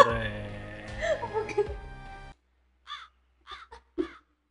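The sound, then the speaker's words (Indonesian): A crow caws several times in short, harsh bursts, coming after a busy stretch of voices and background noise; the calls stand out against the otherwise quiet end. “kan ono gagak lo mulai ono gagak”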